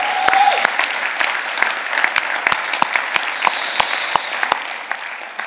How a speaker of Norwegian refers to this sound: Og dere må reise dere opp, så vi kan liksom klappe sånn ordentlig og si det er så fint å ha dere tilbake.